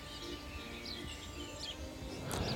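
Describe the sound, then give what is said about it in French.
Several birds chirp and sing in short, scattered bursts at dawn in Paris, before sunrise. The song is fairly soft, over a low steady background hum with no one talking. “À cette heure matinale, les oiseaux y chantent partout dans Paris.”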